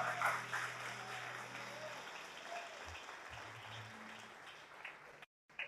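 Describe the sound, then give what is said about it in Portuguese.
Sustained applause from a crowd, given for the King of Glory, a dense steady wash of clapping that fades slightly toward the end before cutting off abruptly. “Dê uma linda salva de palmas para o Rei da Glória.”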